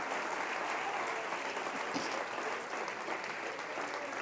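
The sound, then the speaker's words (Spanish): An audience claps for the Lord in a steady, dense wash of applause that holds at an even, fairly loud level for several seconds, with no one speaking over it. “Si usted va a aplaudir al Señor, hermano, hágalo bien.”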